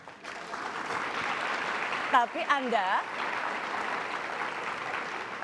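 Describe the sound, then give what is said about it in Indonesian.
Studio audience applause fills the whole stretch as a steady, dense wash of clapping, with a man's voice briefly cutting in over it midway. “Nah tepuk tangan dulu Pak Rosi.”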